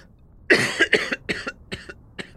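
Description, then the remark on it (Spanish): A fit of coughing: one strong, harsh cough followed by a rapid string of five or six shorter coughs that fade in strength, with no talking. “Está tos de vez en cuando.”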